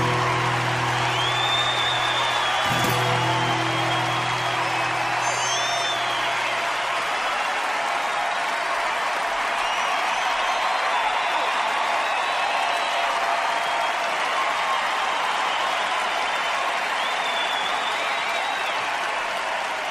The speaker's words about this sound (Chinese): 如果单纯出于节目的听觉感受的话，我应该把这段掌声给剪掉或者缩短。但是，我真的觉得不应该把这经久不息而且发自内心的掌声给剪掉。